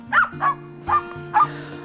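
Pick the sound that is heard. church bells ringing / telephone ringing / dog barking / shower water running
dog barking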